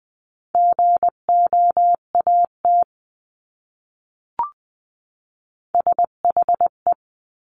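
Morse code words sent at 18-20 words per minute in a steady, medium-high beeping tone, short and long beeps forming two word-length bursts separated by a pause with a brief click. No voices.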